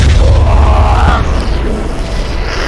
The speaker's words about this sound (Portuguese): e aí, cara, a explosão acaba pegando um vagão posterior e aí começa a explodir trem, trem de carrilha.